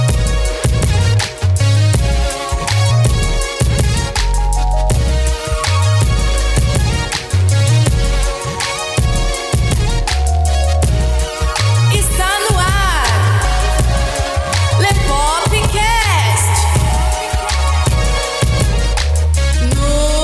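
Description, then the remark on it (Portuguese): An upbeat instrumental jingle plays loudly, driven by a punchy, steady bass beat under bright layered melodies, running continuously for about twenty seconds with no voices. “porque agora é hora da vinheta.”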